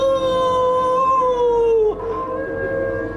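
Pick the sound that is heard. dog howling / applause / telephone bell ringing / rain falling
dog howling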